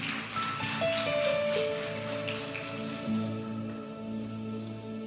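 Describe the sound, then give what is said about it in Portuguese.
An audience applauds the Lord in a dense, steady wash of clapping that holds for several seconds, with sustained keyboard notes lingering underneath. “Aplaudo o Senhor e pode se sentar, querido.”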